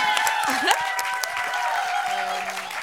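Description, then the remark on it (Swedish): An audience breaks into steady, dense applause, a continuous wash of many hands clapping at even loudness, with a few cheers and murmurs mixed in. “Snälla kan vi ge dem en stor applåd?”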